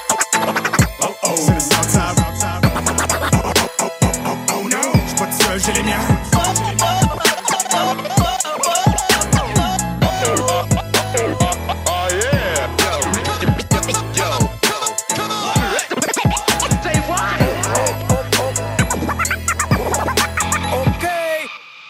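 A French rap track plays loud, driven by a heavy, steady beat and deep bass, with dense layered production running continuously from start to finish.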